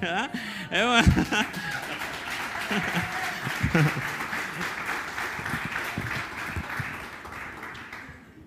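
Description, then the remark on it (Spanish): A crowd breaks into sustained applause, a dense wash of clapping that swells and then slowly fades, with a sung voice ending at the start and scattered chuckles and voices mixed in. “Esto sí es histórico, es la primera vez que me aplauden cuando canto, porque no.”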